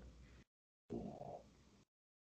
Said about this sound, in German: Dein Hund schnarcht.